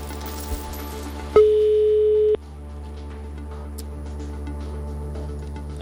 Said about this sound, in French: déjà deux sonneries. Hmm. Trois sonneries. Quatre sonneries, je crois qu'il reste plus qu'une sonnerie.